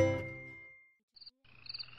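A deep, resonant frog croak rings out and slowly fades, followed by a brief pause, then short high chirps over a rough, pulsing chorus of croaks. No one speaks.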